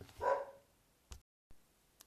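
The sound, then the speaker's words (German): A single dog bark rings out clearly near the start, followed by a couple of faint thumps and clicks in otherwise quiet surroundings. “So, jetzt war ich kurz abgelenkt, weil der Hund zugeballt hat.”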